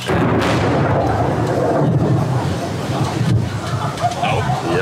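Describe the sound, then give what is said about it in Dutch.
Rough, continuous outdoor roar of gusty wind buffeting a microphone during a pouring summer rainstorm, with deep low rumbles of thunder mixed in and faint muffled voices beneath the noise throughout. “Ja, Volgens mij kon je toen de donder en de gure wind gewoon horen.”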